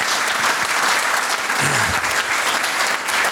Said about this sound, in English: Uh, and just before we wrap up, can you please continue that applause for our two fantastic MCs? They've been at it since 10 o'clock this morning. It's no small oh, feat. So, big round of applause.